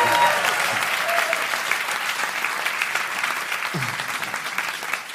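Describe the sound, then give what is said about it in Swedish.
A live audience at a recording in front of the public at the Skalateatern in Stockholm applauds steadily for several seconds, a dense, sustained patter of many hands clapping, with a faint voice briefly audible underneath. “Eh, som ni kanske hör så spelar vi in veckans podd inför publik.”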